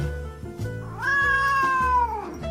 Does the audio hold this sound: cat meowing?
yes